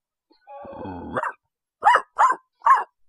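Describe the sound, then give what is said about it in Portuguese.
A person imitates a dog: a drawn-out, whiny growl followed by three short, sharp barks in quick succession, fairly loud, with no other talking. “Vou de cachorro.”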